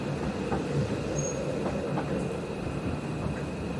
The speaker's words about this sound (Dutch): De kille rijwind vindt zijn weg door de kieren en gaten van de houten opbouw van het postrijtuig van de trein.